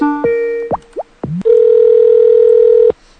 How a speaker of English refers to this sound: It always sounds like the Mario Brothers video game when I call. I guess that's done by the design.